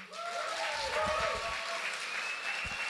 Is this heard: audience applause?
yes